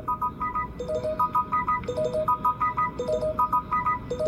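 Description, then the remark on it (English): A phone ringtone for an incoming call plays a repeating melodic pattern of bright electronic tones, looping steadily several times at moderate volume over a low background hum, with no talking. “She's getting a phone call.”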